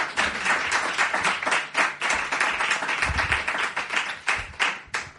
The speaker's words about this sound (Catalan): Mira, ara t'aplaudeixen.